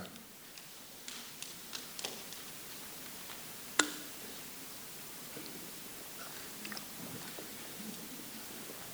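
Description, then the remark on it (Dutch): Someone takes a quiet sip of water, with soft mouth clicks and small swallowing noises, then a sharp click like a glass being set down, over faint background hiss. “Even een slokje water.”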